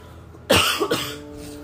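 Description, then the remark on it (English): Two quick, harsh coughs from a person still recovering from COVID, the first louder and the second following a moment later, with no talking around them. “But if I do cough, it is because uh, I'm still recovering from COVID.”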